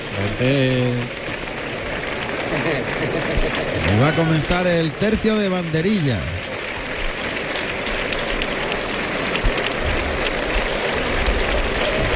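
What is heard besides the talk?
bullring crowd ovation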